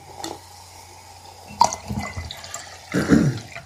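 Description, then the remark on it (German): Drinking water is poured into a glass to top it up, in two short, splashy bursts with a faint trickle between them, fairly quiet, with no talking. “Naja, ein bisschen nachschenken.”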